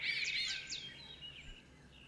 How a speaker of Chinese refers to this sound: 最近西湖边有非常多的鸟在相互的叫着，有些鸟叫声非常的狂妄。嗯，我观察过这些鸟，它们的尾巴都非常长，然后感觉非常的自信。